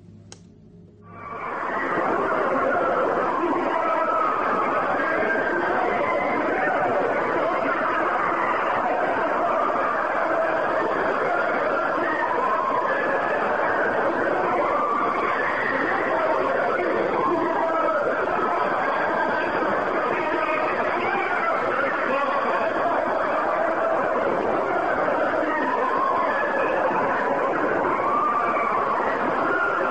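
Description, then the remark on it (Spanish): The so-called 'sounds of hell' recording, attributed to Soviet researchers at the Kola borehole in Siberia, roughly the 1970s to 1980: after a brief quiet opening, a loud, unbroken wall of wailing, scream-like voices and churning noise that continues for the whole half minute. “Estos son los sonidos que dieron la vuelta al mundo, eh, llamados sonidos del infierno por parte de un equipo de investigadores reales soviéticos.”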